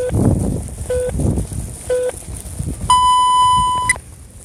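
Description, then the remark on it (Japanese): Three short, evenly spaced mid-pitched beeps a second apart, then a longer, higher tone holding for about a second, the classic telephone time-signal pattern marking 11:40:30 a.m., over a low background rumble. “午前11時40分30秒をお知らせします”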